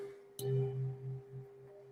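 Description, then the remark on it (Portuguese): A resonant bell made of metal alloys is struck once, clear, then rings on with a sustained, gently wavering hum that pulses slowly as it decays. No voices are heard. “E quando você respira o som desse sino, você potencializa essa limpeza, você potencializa né, a sua cura interior,”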